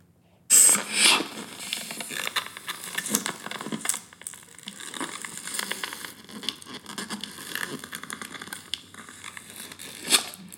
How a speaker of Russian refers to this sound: А. а, сейчас будут как раз те самые надувные шарики.